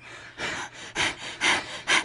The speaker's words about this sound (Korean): 근데 숨소리가 왜 그래요?